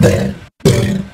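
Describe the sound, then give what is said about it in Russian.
Two loud, deep bellowing bursts from a female Chinese alligator about 125 centimetres long, each about half a second, separated by a brief silence. The rumbling, growl-like territorial calls are heard alone. “В Шнебелевском эксперименте ученые использовали очень мелкого крокодила, самку китайского аллигатора.”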